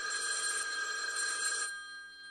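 A telephone bell rings in one loud, sustained metallic trill, then cuts off and leaves a short fading ring-out. No voices are heard.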